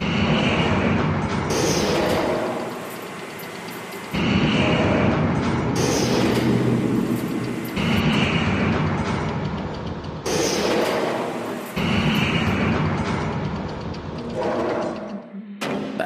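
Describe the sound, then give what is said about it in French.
A machine's engine, with oil circulating throughout the machine, runs loud, a dense rumbling roar that holds steady throughout, its tone shifting abruptly every couple of seconds. No one speaks. “machine, elle vit parce qu'il y, a, elle un moteur, elle a, tout un tas de, réseaux.”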